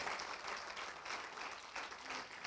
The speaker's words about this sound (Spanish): Un aplauso al Señor.